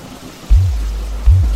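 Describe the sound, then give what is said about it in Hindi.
Heavy, wind-driven rain pours steadily onto a river and the leaves of blooming lotus plants, a dense, even hiss broken by two deep, rumbling low thuds about a second apart. “वर्षा की बूंदे नदी पर और खिले कमल के पत्तों पर पड़कर एक अलग ही लय की रचना कर रही हैं वर्षा के सावेक से मानो अनेक वर्ण जन्म ले रहे हैं वायु के वेग के साथ तीव्र होती इस पहचार से तो मनो कई छंदों की रचना हो रही”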